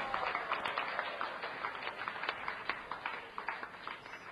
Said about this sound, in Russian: Сейчас вы мне аплодируете, я должен быть счастлив. Но я буду очень счастлив не от ваших аплодисментов и возгласов, а от того, что вы сами достигаете этого истинного счастья по милости Кришны.